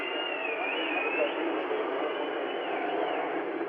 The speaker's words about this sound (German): Hören Sie wieder das Pfeifen auf der östlichen Seite der Ebertstraße, wieder Wachablösung.